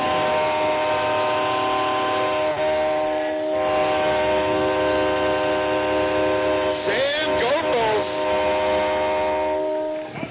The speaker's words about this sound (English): And on fourth down and short, Kingsley is going to go in for the touchdown. Oh. There's that train horn.